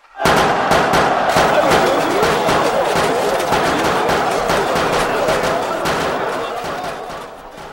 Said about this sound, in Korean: 높다란 비계 위에 올라간 외적의 병졸들이 성 안을 내려다보면서 마구 조총을 쏘아댔다.